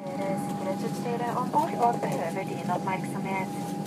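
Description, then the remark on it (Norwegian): Busy airport terminal hum in Oslo before boarding a flight home to Stavanger: steady low rumble with a faint sustained tone, and indistinct voices murmuring in the background throughout. “Da er en lang dag i Oslo over, og jeg eh, er på vei til å gå på flyet for å komme meg hjem igjen til Stavanger.”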